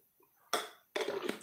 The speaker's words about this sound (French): Petite gorgée parce que je commence à avoir mal à la gorge, excusez-moi.